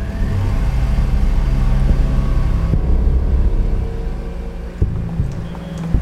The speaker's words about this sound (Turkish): Yine yan yana arka arkaya istif olmuş araçlar, yine insanı canından bezdiren İstanbul trafiği.